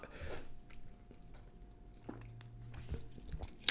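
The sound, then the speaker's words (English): Someone sips a Cutwater canned cocktail and swallows, producing a few soft, wet slurping and gulping mouth sounds spread over a few seconds, quiet and with no talking. “Let me take another sip of this Cutwater.”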